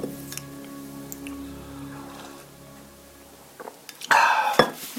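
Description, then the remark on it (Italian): A cup of herbal tea or water is handled for a sip: a few light ceramic clinks and knocks near the end, following a stretch of soft, steady humming tone in the background. “un sorsetto di tisana o di acqua, te lo consiglio sempre.”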